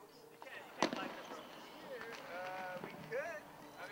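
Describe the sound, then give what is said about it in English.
A single sharp bang from the group's own firework, set off on a roof as a celebration, goes off near the start, followed by faint crackling, while several people talk and exclaim excitedly in the background outdoors. “Okay, we did our own fireworks after the butt, though.”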